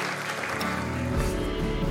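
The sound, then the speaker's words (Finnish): An audience at a church service claps for Jesus in sustained, dense applause, a steady wash of many hands filling the whole two seconds at an even, fairly loud level, with a low rumble rising partway through. “Eikö anneta isot aplodit Jeesukselle?”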